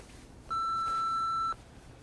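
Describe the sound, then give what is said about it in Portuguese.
One loud, steady answering-machine beep, a pure electronic tone lasting about a second, sounding alone against faint background hiss. “Deixa o recado após o bip.”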